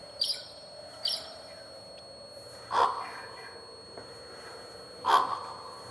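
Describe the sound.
People take turns imitating bird calls: two quick, high chirps, then two lower, fuller hooting calls spaced a couple of seconds apart. The calls are fairly quiet against a faint background, with no talking.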